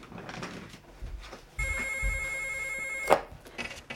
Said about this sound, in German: Dann hat das Telefon geläutet.